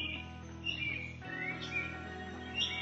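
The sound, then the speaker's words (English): Several short, high chirps and tweets from birds flying by at the beach come and go over a steady, low droning background, fairly faint and with no one talking. “And the birds that fly by”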